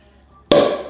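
A bottle of rosé pops open with one sharp, loud burst after a quiet moment, followed by a bright fizzing hiss that gradually fades.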